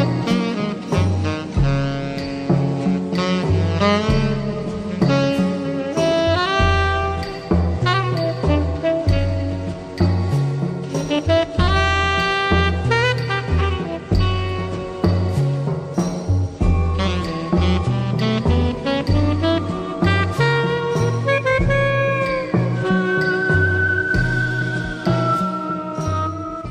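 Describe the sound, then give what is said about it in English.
A full band song plays steadily and loud, with a saxophone carrying a solo melody over bass and drums, and a clear whistled line drifting in near the end. “dressed as a king, playing sax in the song”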